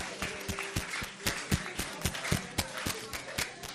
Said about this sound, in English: Clap your hands for Jesus.